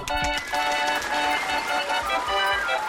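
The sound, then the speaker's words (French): Loud, dense applause fills the whole moment, a steady crackling wash of many hands clapping, with no pauses and no one speaking over it. “Je tiens à vous dire ma grande émotion en vous applaudissant très fort.”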